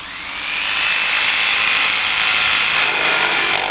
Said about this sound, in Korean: 한 명이 전기톱에 시동을 걸면 다른 한 명이 뒤로 돌아가 나무의 기둥을 붙잡았다.